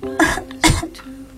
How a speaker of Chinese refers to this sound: 他咳嗽了两三声，想让小王子觉得是他做错了。